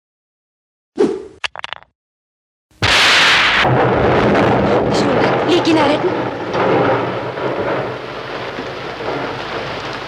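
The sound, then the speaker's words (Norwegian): After a brief shouted line, a sudden loud crack of thunder bursts in and rolls into a steady roar of heavy rain that continues to the end. “Det, det er lyn og torden og setter stemninga, ikke sant?”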